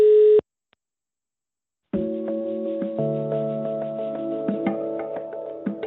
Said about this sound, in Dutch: Nou, zoals je hoorde, ik eh, werd meteen in de wacht gezet. Maar zoals je ook hoorde, ik hoorde een uh, vrij standaard deuntje.